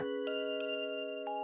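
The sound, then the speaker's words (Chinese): A small violin made of tree leaves plays a bright, steady sustained tone with rich overtones, broken by three light note attacks at an unhurried pace, with no voices. “住在这里的是螳螂， 这是我用树叶做的小提琴，滴哩滴哩。”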